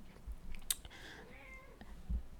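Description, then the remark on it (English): A cat lets out one drawn-out, wavering meow, preceded by a sharp click and followed by a soft thump. No one speaks. “She just wants to jump on my bed and meow loudly.”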